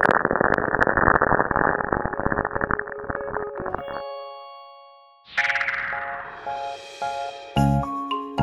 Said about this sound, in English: Scientists think they've found lightning happening on Saturn. The Cassini spacecraft observed it. And here's what scientists think it sounds like.